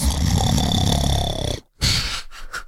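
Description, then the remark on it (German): A person loudly imitates the snoring of a very loud snorer: a long rattling, rasping inhale-like snore, then a brief pause followed by a shorter, breathier snort. Forceful, with no other talking. “Wenn ich äh, darüber nachdenke, ich hatte irgendwann mal eine Beziehung mit einem sehr laut schnarchenden Menschen.”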